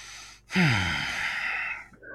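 A single loud, close huff of breath pushed out through the nose, lasting over a second with a rough, airy rush before trailing off. No one speaks.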